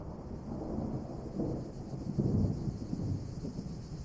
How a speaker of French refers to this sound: alors que la pluie commence à diminuer